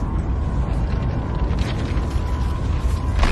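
A nuclear explosion's roar: a deep, continuous rumbling blast that stays loud and steady for several seconds, with a faint high whine running through it and no voices.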